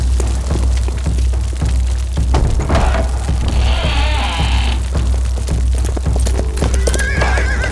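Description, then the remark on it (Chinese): Rapid, loud clip-clop of hooves from a galloping mount, with a horse neighing in the middle and a steady low rumble underneath throughout. “喂喂，他们骑那个怪物是什么？看起来好像是鹿呢。”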